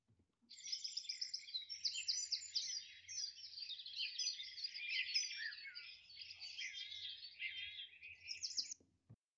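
A dawn chorus: dense, continuous morning birdsong with many overlapping chirps, trills and whistles from several birds at once, moderately loud, filling the scene for about eight seconds with no talking.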